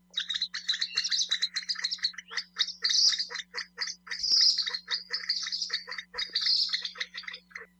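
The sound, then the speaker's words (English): Kalij pheasant calls, a fast run of shrill squealing and grunting notes like the grunts and squeals of pigs, repeated almost without pause, clear over a faint steady low hum, with no voices. “The loud calls of these birds are very distinctive and sound a bit like the grunts and squeals of pigs.”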